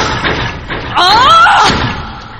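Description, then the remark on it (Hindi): Loud, uneven thumps and bangs on a wooden cupboard, several blows in quick succession, with a shouting voice rising over the middle of the pounding. “उसने चिल्लाते हुए जोर जोर से अलमारी पर मारना शुरू किया”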